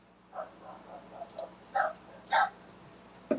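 dog barking

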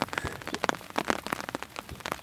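rain falling

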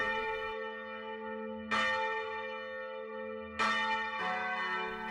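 bell ringing sound effect

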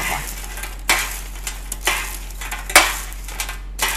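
chicken frying

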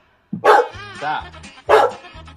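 dog barking

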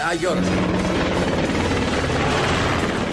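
helicopter flying overhead

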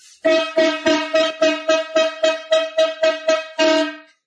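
horn blast sound effect

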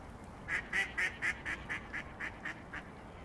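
duck quacking

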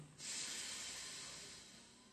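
alternate nostril breathing

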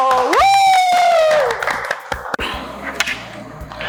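audience applause

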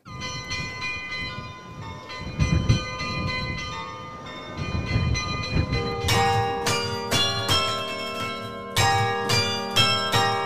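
church bells ringing

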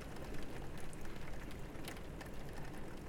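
rain falling

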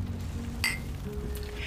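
glasses clinking

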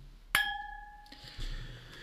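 wine glasses clinking

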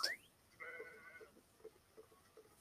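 sheep bleating

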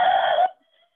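dog making a noise

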